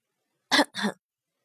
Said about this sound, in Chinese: 远处莫基业重重的咳嗽了两声